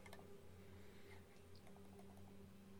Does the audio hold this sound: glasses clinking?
no